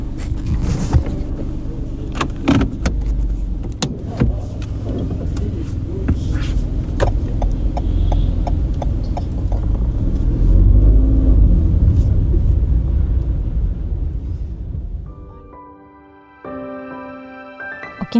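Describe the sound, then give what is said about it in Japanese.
A rental car's engine rumbles steadily as it drives off from a rental car shop in Naha, heading for Henoko in Nago on a rainy morning, with scattered clicks and a swell in loudness midway. The rumble then drops away and a bright, melodic electronic tone plays near the end. “私は今那覇市のレンタカー店にいますこれから名護市の辺野古に向かいたいと思いますだいたいここから高速を使って1時間ぐらいだと思います今日は朝から雨も降ってるので気をつけて運転していきます”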